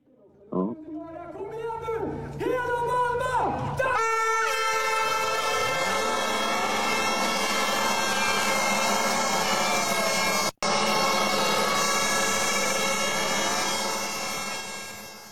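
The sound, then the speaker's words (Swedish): A crowd at a prize ceremony in Västerås cheers and shouts as many horns blare together in a loud, sustained, dense wall of sound that swells after a few seconds, breaks off for an instant, then carries on. “Apropå stämning, jag ska spela ett, ett litet klipp med ljud. Det är ju från Västerås. Det är faktiskt från prisutdelningen.”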